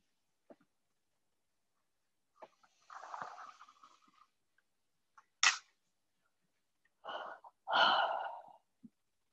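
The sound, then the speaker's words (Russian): Audible breaths during a guided meditation: a long airy inhale, a short sharp puff, then a deeper drawn breath and a strong exhale, with brief quiet pauses between and no talking. “Вдыхаем и выдыхаем.”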